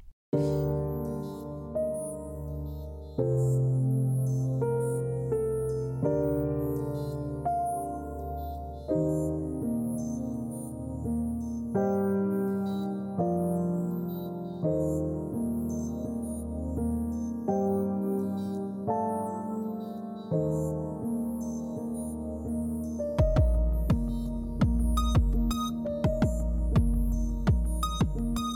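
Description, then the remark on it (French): Piano and orchestra play a flowing instrumental introduction, with Christo on piano and arrangement and Will on orchestration and mixing, sustained harmonic chords shifting every few seconds, before fuller strings and percussion swell in near the end; no voices are heard. “Je vous laisse en compagnie de Christo au piano et arrangement, Will égal à l'orchestration et au mixage”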